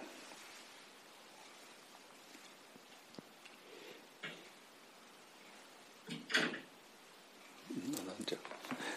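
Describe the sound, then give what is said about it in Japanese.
A door thuds shut once, a short, fairly loud knock standing out from a steady background hiss, with faint muffled voices and small knocks around it. “誰かドア閉めたミュートになってないんだ”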